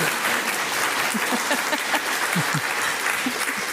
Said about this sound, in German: Ah, ja, Sie dürfen klatschen.